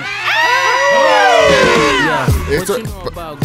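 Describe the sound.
A crowd shouts and cheers loudly for about two seconds as a morning warm-up, many overlapping voices whooping and hollering, then the noise breaks up into scattered shouts and a voice as it dies down.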